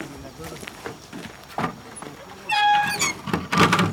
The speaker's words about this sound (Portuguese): O grisalho para atrás do estábulo. Ele vai até o portão. Fecha a porta. Sim, senhor e o fecha.